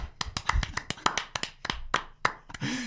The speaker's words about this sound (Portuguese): Palmas para o Iscal!